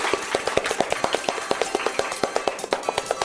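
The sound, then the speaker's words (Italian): A steady patter of hand claps from a small group applauding the week's radio participants during a live broadcast on Radio 6 Forte, many sharp overlapping slaps in an uneven rhythm, moderately loud and continuing for a few seconds without voices. “Un applauso di nuovo a tutti i partecipanti della radio che questa settimana sono stati numerosissimi!”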